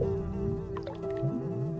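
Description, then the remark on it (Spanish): Flies buzz in a steady drone that hums continuously without pause, a thin whine layered over a low rumble, with no voices present; the flies swarm with worms and larvae in a bathtub overflowing with a foul, dark liquid. “La tina rebalsa de un nauseabundo líquido oscuro, en el que pululan gusanos, moscas y larvas.”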